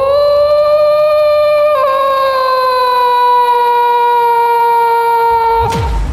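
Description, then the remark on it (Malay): A person's voice imitates a factory siren with one long, loud, sustained wail that drifts slowly downward in pitch, briefly wavers early on, and lasts about six seconds before cutting off. “Contoh Contoh siren kilang macam tu kan?”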